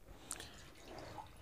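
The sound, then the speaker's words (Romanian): Water being poured into a cup, a faint, brief trickle with a few soft dripping splashes against a quiet background hiss, no voices present. “Pot să mai îmi pun o ca... Eu, da, da, datorită diabetului, beau foarte multă apă, știi?”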